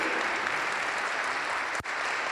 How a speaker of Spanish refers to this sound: Damos un aplauso a Dios por su vida